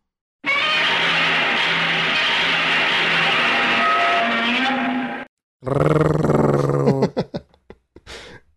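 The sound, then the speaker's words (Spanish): A Godzilla giant monster roar, long, loud and grinding for about five seconds, then a brief pause before a second shorter roar that breaks into sputtering bursts and fades out. “Estaba buscando sonidos de Godzilla y hay un video donde hacen un concurso de unos niños.”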